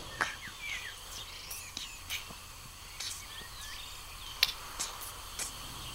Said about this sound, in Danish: Det er lyden af træer, der taler sammen. Optagelsen er lavet af Dr. Ruth Müller som har forsket i træers kommunikation i mere end 20 år i Kone Instituttet i Israel.